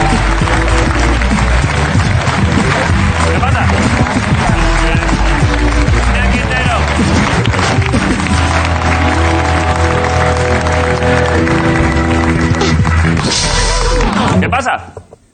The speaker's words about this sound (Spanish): Vale, pues hoy en Resistencia estamos encantados. Y pido un aplauso como una catedral para Damián Quintero.